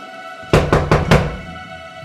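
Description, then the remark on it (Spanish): Four quick, evenly spaced, firm knocks on a door, followed by a faint steady background hum with no voices. “Matt Sanders, sé que estás ahí, abre la puerta”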